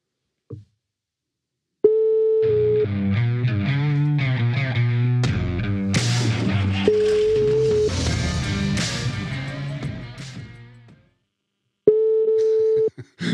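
A telephone ringback tone while calling: a steady electronic tone returns three times, with a loud, distorted burst of tangled harmonic noise filling the long gaps between.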